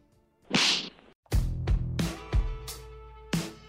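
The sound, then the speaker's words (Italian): A quick whooshing swish, then a loud, sharp slap crack followed by a few more smacking hits over a short ringing musical sting, punchy with no voices; a stinger introducing a weekly slap segment. “ma ci arriviamo tra poco perché è il momento dello schiaffo della settimana.”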